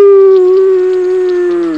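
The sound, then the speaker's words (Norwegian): A human voice imitates a cow's moo, voicing a story cow crying in fear during a thunderstorm: one long, loud, steady low-pitched drone with strong harmonics, holding its pitch for nearly two seconds before dipping slightly at the end. “Nå gråt hun og tutet i hornene sine.”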